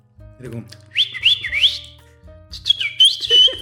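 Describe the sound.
A person whistles a short signal used to call friends, two clear, high phrases with rising and falling pitch glides, fairly loud, separated by a brief pause.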